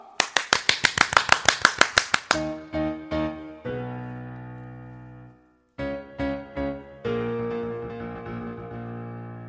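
About a dozen loud, evenly spaced claps in a steady rhythm on a Korean radio show, lasting a couple of seconds, then stopping as a choir's live performance of sustained tonal music with voices takes over.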